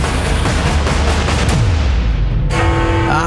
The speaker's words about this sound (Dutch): de timer van 60 eh, minuten is gewoon mijn iPhone wekker. En eh, iedere keer aan het einde gaat hij ook af